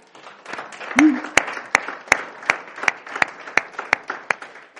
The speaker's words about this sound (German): Wollen wir dem Herrn einmal einen Applaus geben?